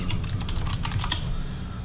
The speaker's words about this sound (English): I know my keyboard's loud, but uh, whatever.